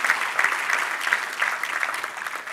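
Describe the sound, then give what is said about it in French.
A church audience in Terrebonne applauds together, a dense, steady patter of many hands clapping at once, fairly loud, without any voices standing out. “est-ce qu'on peut donner une main d'acclamation, Seigneur?”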